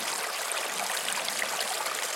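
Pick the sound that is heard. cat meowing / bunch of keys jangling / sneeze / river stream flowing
river stream flowing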